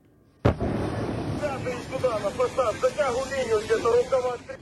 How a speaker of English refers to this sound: Explosions overnight in Kiev. Several buildings, including a metro station, were hit.